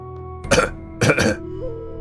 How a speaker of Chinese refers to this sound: 六叔忽然咳嗽起来，他放下了那杆老烟枪，然后轻轻地摇了摇头。